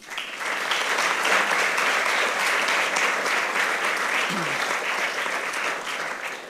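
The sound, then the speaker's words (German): Sustained audience applause, a dense wash of many hands clapping at a steady loud level for several seconds, rising quickly at the start and tapering slightly at the end. “Applaus für euch.”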